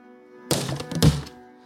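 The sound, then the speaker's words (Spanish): Two plastic bottles fall from someone's hands onto a hard floor, each landing with a hollow thunk followed by a quick clatter of small bounces, over a steady low background hum. “Ah, Ahí caen las dos botellas, güey.”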